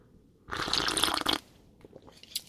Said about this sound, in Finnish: Nyt mä hörppään taas.